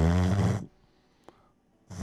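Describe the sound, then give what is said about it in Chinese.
A doctor demonstrates noisy breathing through a partly blocked nose: a loud, rough, low snuffling breath, a pause with a faint click, then another harsh breath starting. “但如果鼻子有部分阻塞，那 那 可能就会 呼吸声就会变大，”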